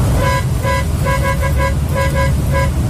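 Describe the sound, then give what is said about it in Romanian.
Car horns honk repeatedly in short, rhythmic, loud bursts over a steady low rumble of traffic, with no one talking. “pentru glumeme și au început să curgă și claxoanele.”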